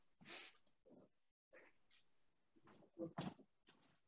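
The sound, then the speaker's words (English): A cat scratches at a door in several irregular, rasping bursts, fairly quiet, with short pauses between the scrapes and no one talking. “I have a cat scratching at the door.”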